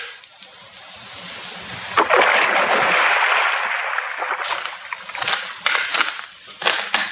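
A woman's body is thrown into a river and hits the water with a loud, broad splash, followed by a few seconds of churning and sloshing that fade into scattered smaller splashes and drips.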